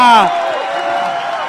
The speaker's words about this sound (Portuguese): Uma salva de palmas pra vocês, né, gente? Aê! Esse foi o …!